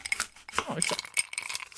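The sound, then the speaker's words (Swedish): A "bartender working" bar ambience played from the website I Miss My Bar: glasses and cutlery clink repeatedly in quick, irregular bursts with bright high-pitched chimes, while low murmuring voices run underneath. “och då kan man sätta på någonting här, till exempel bartender working.”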